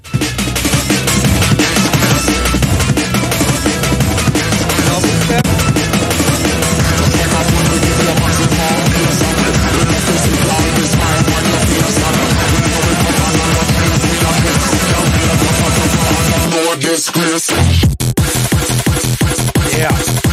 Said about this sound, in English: Bro, I, I knew it was coming double step. I, I just felt it. When you say it was like, oh yeah, I, I switched it to to something different than DNB. I was like, oh, he went double step.